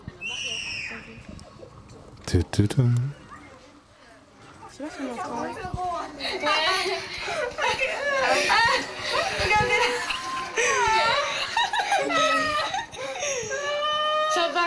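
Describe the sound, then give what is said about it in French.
Several people scream and cry at once in the Namur cable car, their shrill overlapping wails rising and falling continuously, after a brief loud clatter near the start. “ça va, arrêtez de crier, ça va.”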